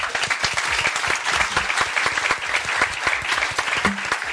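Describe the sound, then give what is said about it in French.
An audience claps for a show's three columnists at the end of a debate, a dense, continuous patter of many hands lasting the whole stretch at a fairly loud, even level, with no voices standing out. “On peut applaudir en tout cas nos trois chroniqueurs.”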